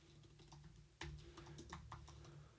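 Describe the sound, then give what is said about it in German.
Rapid typing on a new computer keyboard, a quick irregular run of crisp clicks and taps over a low steady hum, with one sharper keystroke partway through. “Ich habe eine neue Tastatur, deswegen ist 37 Prozent.”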